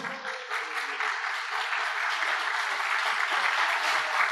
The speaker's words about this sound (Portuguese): Aplauda o Senhor.